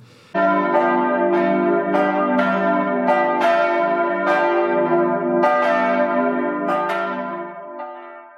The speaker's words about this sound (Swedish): Klockan ringer in till det nittonde avsnittet av Lillhällsmål.